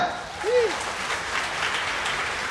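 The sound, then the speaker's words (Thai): A crowd at a talk about business success applauds themselves, with dense, steady clapping that holds at an even level throughout, a brief rising-falling vocal tone briefly heard over it near the start. “ไหนใครยังไม่พอใจกับตัวเองเลยในเรื่องความสำเร็จในทุกวันนี้ยกมืออ่ะปรบมือกับตัวเองด้วย”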